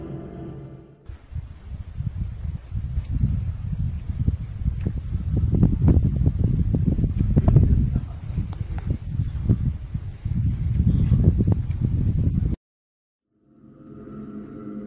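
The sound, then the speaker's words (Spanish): Strong, gusty wind rumbles and buffets for about twelve seconds, with scattered sharp clicks of a lighter being flicked, then cuts off abruptly. “Y sí, más o menos se distingue como que a lo, creo que en combinación del viento y este el ruido que alguien está haciendo con un, encendedor, en un encendedor creo.”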